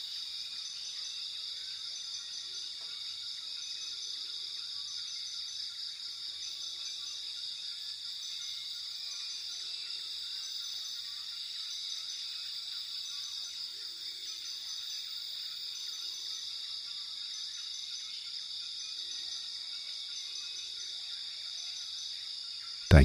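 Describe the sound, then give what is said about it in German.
A dense, steady chorus of insects buzzes and trills on high pitches throughout, with occasional faint bird calls scattered underneath, creating a continuous jungle night ambience with no talking. “Der Klang des Dschungels begleitet dich in den Schlaf.”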